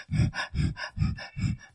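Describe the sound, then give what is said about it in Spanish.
A person imitates the hyperventilating of an anxiety attack with rapid, rhythmic panting breaths, about four quick huffing cycles, loud and breathy with no words. “También la respiración empieza uno a hiperventilarse y empieza uno a...”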